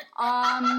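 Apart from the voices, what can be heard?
cat vocalizing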